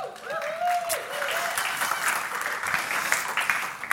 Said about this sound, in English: Round of applause